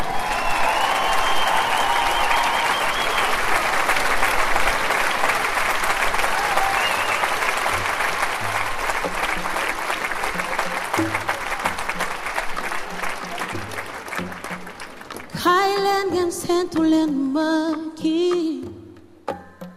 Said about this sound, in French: je vous demande de faire un tonnerre d'applaudissements pour Julia Sartre